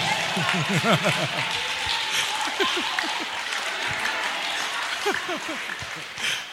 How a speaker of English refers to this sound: Clap for women in this church.